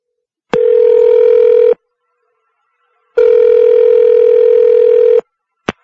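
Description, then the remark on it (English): A telephone rings twice on the line as Mrs. Harris calls Tommy and Julie's school, Park Elementary School; each a long steady electronic tone separated by a pause, followed by a brief click as the call is picked up. No one speaks. “Harris, from the story on page 36, is calling Tommy and Julie's school.”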